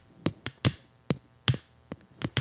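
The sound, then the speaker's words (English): Two small Japanese drinking vessels (jicaras) knocked together in a quick series of about nine dull, sharp taps in an uneven rhythm, with no clink or ring and no voices. “can't really clink a jicara. It just kind of does a tap tap.”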